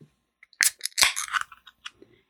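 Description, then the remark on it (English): An ice cold can of Keystone Light beer cracked open: a sharp metallic snap, then a second crackling pop with a short burst of fizzing hiss, followed by a few faint clicks. No one speaks. “As always, I'll be enjoying an ice cold can of Keystone Light while I tell you today's story.”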